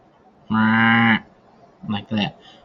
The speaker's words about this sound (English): So the bleat calls are actually really short instead of long.